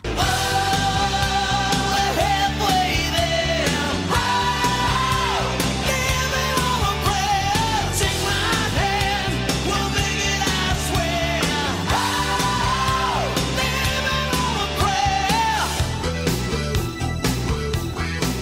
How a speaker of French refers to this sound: mais si je vous en donne un petit extrait, vous, je suis certain que vous allez forcément reconnaître très très grand tube des années 80